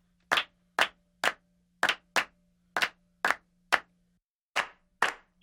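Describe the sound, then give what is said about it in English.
Live-recorded hand claps on a music track ring out one at a time in a loose, steady rhythm, about eleven sharp, bright smacks with short gaps between, over a faint low hum. No voices. “So just some bongo stuff we did, some claps, all live.”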